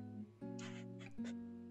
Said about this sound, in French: Vous entendez mes chats en arrière, je pense?